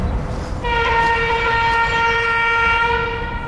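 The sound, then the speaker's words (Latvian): A train passes on a railway with a heavy rolling rumble, and about half a second in its horn sounds one long, steady, loud blast that holds over the noise until the end. “Un būtu droši, ka nenobrauks vilciens, vai ne?”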